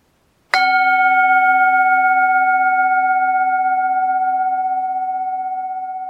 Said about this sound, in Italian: Il gong in testa mi ha fatto un pelo rinsavire. Dimenticavo il contenuto fantascientifico della puntata di Woz che stavate così tanto aspettando e visto che il gong è già suonato, ora sono libero di farvi tutti gli spoiler del mondo.